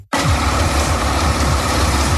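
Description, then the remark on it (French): A loud off-road truck engine roars steadily after a brief silent start, its deep rumbling low end pulsing with rough, throbbing revs throughout. It comes from the 4- to 8-wheel off-road trucks competing in the French round of the Europa Truck Trial at the Vallée Bleue 4x4 centre in Montalieu, Isère, France. “des camions tout-terrain de 4 à 8 roues rivalisent d'audace et d'habileté”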